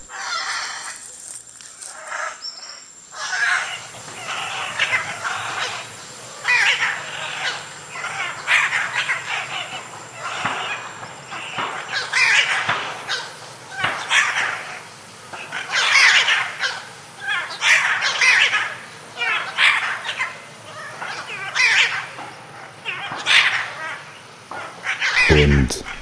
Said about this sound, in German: Insofern wünschte ich, dass irgendjemand diese beiden Aras dort aus der Voliere bei Sangerhausen entführen würde und wieder zurück nach Südamerika bringen würde